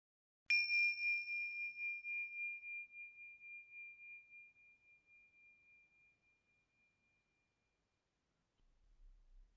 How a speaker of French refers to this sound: Dans quelques instants, je vais faire résonner la cloche de fin. Je vous invite à écouter ce son jusqu'au bout avant de reprendre vos activités.